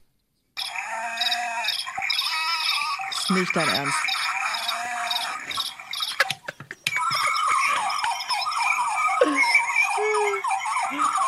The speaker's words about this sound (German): Was ist das überhaupt? Das ist, das ein Zoo? Ist das, das sind Naturgeräusche. Ich habe es ja gerade schon gesagt.